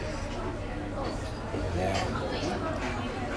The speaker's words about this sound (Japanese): 居酒屋来てますけど今日はノンアルコールで